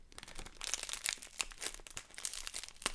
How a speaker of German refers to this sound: Also ich habe jetzt hier, so, das muss ich jetzt auch erstmal auspacken. Achtung. Ein bisschen ASMR oder wie das heißt, ne? So ein bisschen, ähm, man, man hört das und man fühlt sich wohl, mhm. weil ich Sachen auspacke.